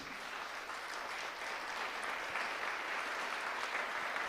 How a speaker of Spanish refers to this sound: les mandamos un fuerte abrazo, una gran sonrisa les, eh, y un fuerte aplauso desde Cochabamba, Bolivia.